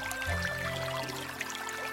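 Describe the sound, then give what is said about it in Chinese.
Spring water trickles and babbles steadily, a soft continuous burbling with light splashy detail and no voices, staying fairly quiet throughout. “听，泉水叮咚作响”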